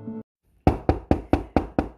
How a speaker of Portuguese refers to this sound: A garota para seu sonho quando sua mãe bate na porta do banheiro